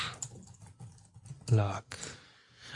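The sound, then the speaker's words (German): Rapid, uneven clicking of computer keys being typed, moderately loud, with a brief burst of a voice partway through. “So, wir tippen ein.”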